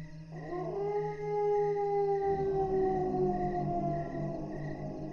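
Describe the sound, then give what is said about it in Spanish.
Dogs howl at night under a full moon in long, sustained, wavering tones that rise and hold steadily, a mournful chorus with no talking over it. “Los perros comenzaron a aullar, primero bajo, casi inaudible, aumentando poco a poco su lamento.”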